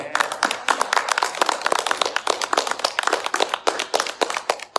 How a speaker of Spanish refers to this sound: Dale un aplauso a Cristo el Señor.